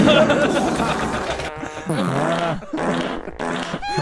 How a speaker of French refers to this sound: Et qui a pété à l'instant d'ailleurs.